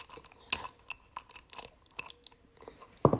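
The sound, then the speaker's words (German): Wet smacking chewing of someone eating, with repeated irregular crunchy bites and mouth clicks, loud, ending in a sharper louder smack; no talking. “nicht schmatzen.”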